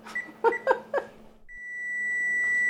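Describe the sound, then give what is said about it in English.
A few short electronic beeps as buttons are pressed on a kitchen timer, set while noodle kugel bakes in the oven at 350 for about 20 minutes, followed by a steady, high-pitched tone that keeps sounding and grows louder, with no talking. “And yes, I do set a timer.”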